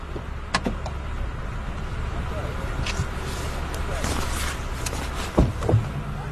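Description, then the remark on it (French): A car rolls along on the way home with a steady, low engine and road rumble throughout, broken by a few sharp clicks and thumps near the start and toward the end. “Montez dans la voiture. Nous pourrons parler en chemin.”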